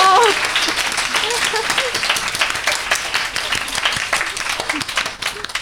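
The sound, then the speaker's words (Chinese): A live audience of over a hundred people applauds at a live recording event in a dense, steady wash of many hands clapping at once. It stays loud throughout, with a few faint voices mixed in, then eases slightly at the very end. “就是一个现场录音的状态，对，大家可以回去听听看有没有听到你的鼓掌声这样子，嗯、因为刚刚 要细细的分辨哦， 细细分辨，因为刚刚我旁边的来宾在魔性的鼓掌这样子”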